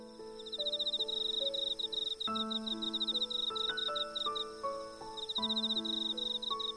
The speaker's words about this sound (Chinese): 他们分别是能利用摩擦翅膀发出声音、节奏感超好的蟋蟀姐姐。